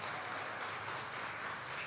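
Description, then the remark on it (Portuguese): An audience applauding the Lord: dense, continuous clapping from many hands, steady throughout with no one speaking. “Você pode aplaudir o Senhor em nome de Jesus Cristo.”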